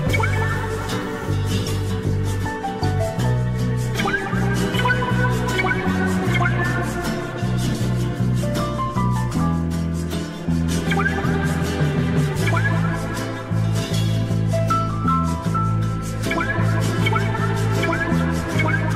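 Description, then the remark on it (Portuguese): A loud, steady instrumental film soundtrack theme plays with no vocals, a full arrangement over a firm bass line, with a melody of bending, gliding notes repeating throughout. “um tema instrumental que mesmo assim se portou muito bem nas tabelas de vendas, eh, eram outros tempos.”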